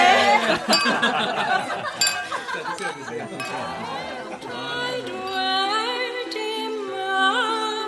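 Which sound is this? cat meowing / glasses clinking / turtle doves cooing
glasses clinking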